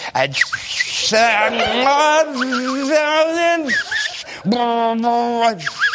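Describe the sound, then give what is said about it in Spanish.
A man's voice imitates a car engine, supplying the noise an electric car lacks, making a long buzzing vroom that rises in pitch, then a second shorter rev after a brief pause, fairly loud. “En cualquier caso, como era de esperar, a mí no me hace falta que los coches eléctricos hagan ruido porque ya se los puedo yo meter tranquilamente.”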